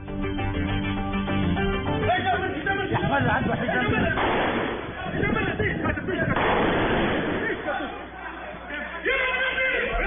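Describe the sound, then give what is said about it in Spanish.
Rapid bursts of gunfire crack out repeatedly amid chaotic crowd noise and shouting, with a steady tonal hum in the opening seconds, from an amateur video of the Islamic State terrorist attack in Tunisia. “Este es el sonido de un video aficionado que se ha grabado de la tragedia que ocurrió en Túnez, el ataque terrorista del Estado Islámico que deja por lo menos 38 personas fallecidas.”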